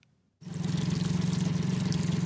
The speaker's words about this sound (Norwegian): Lyden av en rana 530-båt i båthavna i Førde. Jeg eh, regner med det blir ute i Svanøy. Fiske litt.